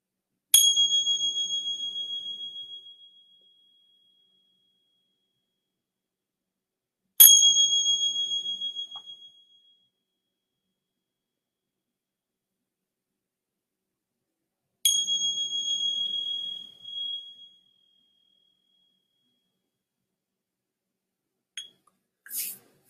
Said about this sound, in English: And then receiving the sounds of the bell.